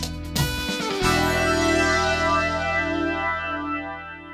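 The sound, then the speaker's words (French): An instrumental music track by one of the guest's main colleagues plays alone: a brief textured intro gives way to a sustained, effects-heavy chord that rings steadily at moderate loudness, with no voices. “qu'est-ce que c'est cette ambiance musicale ah, ça, c'est, c'est, un titre euh, d'un de, mes principaux collègues”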